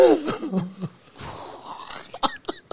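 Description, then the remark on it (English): A person makes strained, gasping choking noises, then a quick cluster of short, sharp coughs near the end, apparently imitating a coughing fit. “I choke and I choke and cough when I get their fur in my nose.”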